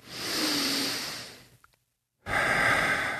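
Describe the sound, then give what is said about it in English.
A long, deep breath drawn in with a broad airy hiss, then a brief pause of near silence before a second strong, rushing breath. No talking. “So breathe in.”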